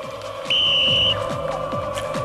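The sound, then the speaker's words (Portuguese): A referee's whistle gives one sharp, steady, high-pitched blast lasting about half a second, blown as the signal to shoot at goal in a football game, loud above a constant low hum and faint rhythmic background noise. “Vou apitar.”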